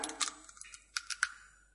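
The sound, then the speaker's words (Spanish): Several sharp, dry cracks and snaps of nutshells breaking, coming in irregular bursts, fairly quiet, with faint crackling in between and no voices. “Nos encanta el sonido cuando trisca.”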